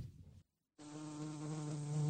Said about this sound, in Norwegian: Det er en bie.